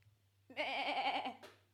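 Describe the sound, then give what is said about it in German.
A single drawn-out sheep bleat with a wavering, quavering tone, loud, lasting about a second over a faint low hum, ending with a short breathy click. “Ich bin kein Schaf.”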